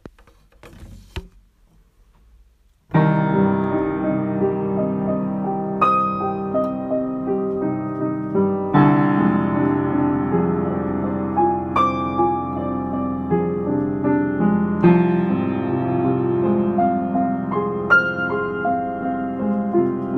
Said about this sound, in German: Neben der Geläufigkeit muss man bei diesem Stück allerdings auch noch auf etwas anderes achten, und zwar auf sogenannte Glockentöne. Die hat man sowohl in der Höhe als auch in der Tiefe. Und das zeige ich euch mal kurz.